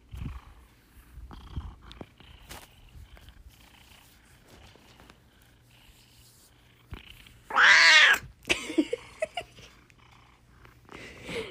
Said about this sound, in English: You're not a circus performer, huh? You'll meow whenever you feel like it.